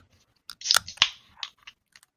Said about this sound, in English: I'm pouring mine over ice. Fancy. Classy. Drink it right out of the can.